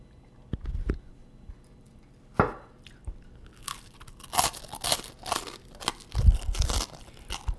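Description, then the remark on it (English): Crisp crunches of toast being bitten and chewed, starting with a few sharp bites and building into a dense, irregular run of loud crunching with no talking. “No chewing. I'm just trying oh to finish God. my toast.”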